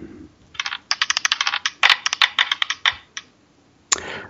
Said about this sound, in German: Ich würfel.